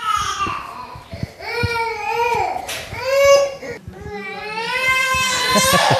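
A small boy cries and fusses in repeated whiny, high-pitched wails with brief breaths between them, loud and continuous throughout; nothing is actually wrong with him, he just wants to make a racket. Recorded with a microphone.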